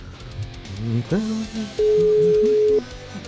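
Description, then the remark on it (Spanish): A steady telephone line tone sounds for about a second on a call to the wrong number, a single flat electronic beep at moderate volume, with a faint voice and background murmur underneath. “pues efectivamente, este no es el número del teléfono.”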